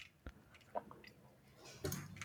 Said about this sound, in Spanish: perdón, estaba tomando agua.